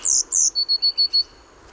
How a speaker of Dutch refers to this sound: En de pimpelmees, die klinkt dan weer meer als een belletje. Daar komt hij. Ja. Een soort heel fijn zilveren